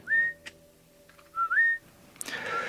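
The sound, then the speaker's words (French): Two clear, melodious human whistles, each a rising then level tone, used by Hadza honey hunters in northern Tanzania to call a wild bird; a breathy rush of noise follows near the end, with a faint steady hum underneath. “L'étude publiée en 2014 par Brian Wood et ses collègues dans Evolution and Human Behavior indiquait que les chasseurs de miel Hasda au nord de la Tanzanie appelaient l'oiseau en utilisant un sifflement mélodieux.”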